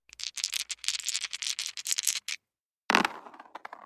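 Dice rolled for a wisdom check rattle in a quick, busy clatter for about two seconds, then after a short pause they land with a sharp clack and a brief settling rattle. Fairly loud, no voices.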